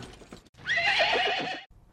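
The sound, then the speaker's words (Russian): As horses stop at a small post station house, a horse gives a loud whinny lasting about a second, its quavering cry rising and falling, with soft hoof clops and shuffling around it and no voices. “Лошади стали у почтового домика.”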